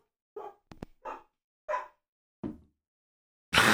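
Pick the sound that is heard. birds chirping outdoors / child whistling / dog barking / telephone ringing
dog barking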